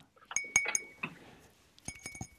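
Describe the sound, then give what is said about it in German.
Glass clinks and taps as a ribbed apple wine glass with a pattern of small diamonds is handled, with several bright ringing chimes in quick bursts, a pause, then another cluster of clinks. No one speaks. “Das ist nämlich ein Apfelweinglas mit der typischen Struktur ah, ja.”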